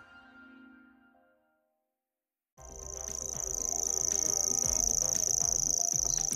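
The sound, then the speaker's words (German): After a short musical fade, a common grasshopper warbler, a small bird, delivers its song: a continuous, high-pitched mechanical reeling that buzzes steadily for several seconds, fairly loud, with faint outdoor background. “So klingt ein Feldschwirrl, ein kleiner Vogel.”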